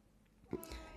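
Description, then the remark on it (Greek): The speaker's own cat lets out a short meow, a brief tonal cry rising and fading within about half a second, with no talking over it. “Αυτή είναι η γάτα μου.”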